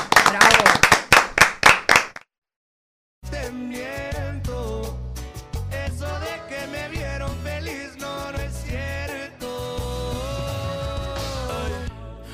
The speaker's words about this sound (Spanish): Sammy Sosa, un aplauso.